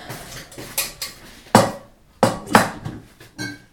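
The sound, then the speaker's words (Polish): Metal cookware clanks and rattles, with several sharp knocks of a pot being set down and shifted, separated by brief quieter moments and no talking, as butter is put into the pot to lightly fry mushrooms. “do garnka dam odrobinę masła i leciutko przesmażę te czarki.”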